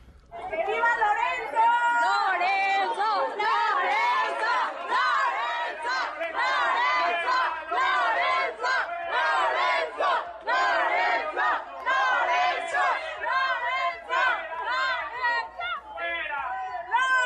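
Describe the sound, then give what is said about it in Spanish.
A large crowd shouts and yells continuously at Lorenzo Cordo, the former president councillor of Mexico's electoral institute INE, who teaches at the UNAM. Many raised voices overlap into a loud, dense roar that rises and falls in bursts for the whole stretch without pause. “Ahí tienes cómo reciben y despiden al expresidente consejero del INE, Lorenzo Cordo, ¿verdad?”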